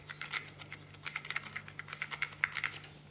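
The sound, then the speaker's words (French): Small paper slips for a prize draw rattle and rustle inside a box as it is shaken, a quick series of soft, dry ticks and scrapes in uneven bursts, fairly quiet, with no voices. “Alors, j'ai mis les petits papiers dans la boîte, je secoue la boîte.”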